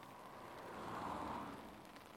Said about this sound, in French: Seules quelques voitures viennent casser le silence ambiant. C'est un hiver glacial et la chaussée est glissante car il tombe une pluie dense.